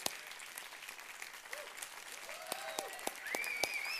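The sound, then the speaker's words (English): A large church audience applauds their pastors steadily, a dense wash of clapping, while several sharp whistles rise and glide above it, some piercing, others fainter. “Please give your pastors a huge round of applause.”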